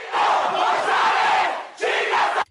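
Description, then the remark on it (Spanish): A large crowd of people from the surroundings shouts together in one sustained, loud roar, then a second shorter burst of collective yelling follows after a brief dip, ending abruptly. “pues imagínate, toda la gente pues que estaba de los alrededores, pues también se aventaron el grito.”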